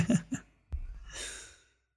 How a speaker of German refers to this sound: Du hörst einen schnarchenden Hund im Hintergrund.